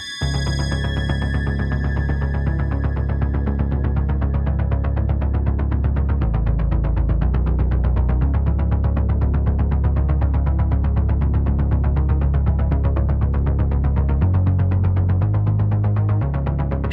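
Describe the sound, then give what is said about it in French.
An electronic track opens with a steady, throbbing synth pulse over a deep, sustained bass drone that shifts pitch late on, dense and loud throughout with no voices. “On s'écoute ça tout de suite euh, avec le morceau qu'il a composé avec euh”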